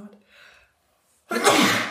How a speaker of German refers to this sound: Gesundheit. Oh. Wenn es kribbelt und kurz davor ist. Ey, ätzend. Meistens mache ich es ja zweimal.